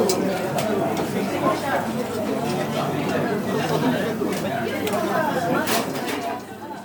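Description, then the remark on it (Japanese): A busy standing bar full of overlapping customer chatter, steady and fairly loud throughout, with occasional clinks and kitchen clatter rising briefly through the crowd noise; a customer orders shochu and soda with two lemon slices. “ちなみにあのそういうのもあるのかと思って今気になったのが焼酎と炭酸頼んでる人がレモン2枚ねっつってますねつまりカットレモンの量を倍に2倍にしてくれっていうオーダーをこれ無料でサービスでできるんだ俺今まで知らなかった”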